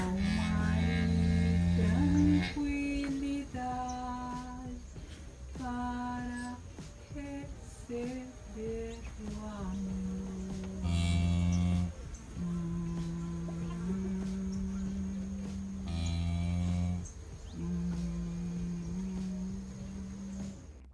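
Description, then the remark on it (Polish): A woman lying with her cow in a stable sings long, drawn-out notes while the cow moos along with her, their low sustained tones trading and overlapping at a steady, fairly loud level. “Tak właśnie brzmi duet y, pani i krowy.”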